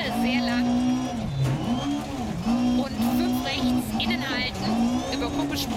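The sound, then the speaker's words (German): A rally car engine revs hard and steadily, its pitch rising and dipping with each gear change, while tires squeal and skid in short bursts. Voices talk faintly underneath. “Guck mal, ich sage, das Auto ist so krank.”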